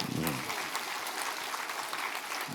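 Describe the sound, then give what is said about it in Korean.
An audience at a church service claps steadily in a dense, even wash of applause that holds throughout. A voice speaks briefly at the very start, and the clapping stays level to the end. “박수 한번 해주세요.”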